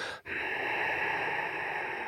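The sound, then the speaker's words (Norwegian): A slow, audible ujjayi breath through the nose with the mouth closed, the breath used in ashtanga or vinyasa yoga: a brief catch, then one long, even, throaty hiss that continues to the end, with no talking. “blåse dugg på en rute med munnen lukket gjennom nesen.”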